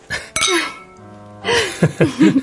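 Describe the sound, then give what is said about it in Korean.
Glasses clink together in a repeated toast, a bright ringing chime that hangs and fades, followed by a few lighter clinks and clatters. “그런 의미에서 한 번 더 짠할까요?”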